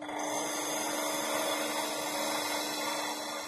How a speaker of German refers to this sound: Blind arbeiten muss sie, weil das Schleifrad genau den Blick verdeckt auf das zu gravierende Glas.